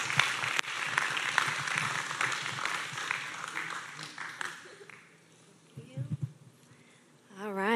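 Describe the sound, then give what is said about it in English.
A church audience at Harvest claps to the Lord as a woman comes up to share a Bible study testimony, a dense, steady wash of applause that fades out after about five seconds, followed by a few soft murmurs and a short rising tone at the end. “And so she's, yeah, let's, let's give a clap to the Lord as she comes to share how God has blessed her through that Bible study.”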